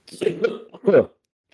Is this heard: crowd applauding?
no